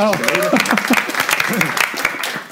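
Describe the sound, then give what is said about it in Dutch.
A short burst of audience applause: many quick, overlapping claps at a steady moderate level, with people talking over the clapping throughout. “Dus oh, dat dan klapt alsnog applaus.”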